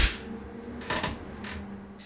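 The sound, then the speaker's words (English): A single sharp hand clap cracks out over a quiet, low hum, with a couple of softer hissy bursts of noise around it and no one speaking. “Well, I'm, you're gonna after I do the clap.”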